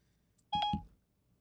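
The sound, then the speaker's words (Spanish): A short electronic chime from a smartphone's Siri voice assistant activating, a quick bright two-tone beep lasting under half a second, clear against a quiet background with no talking. “Viste, tú hablas y te contesta mi teléfono.”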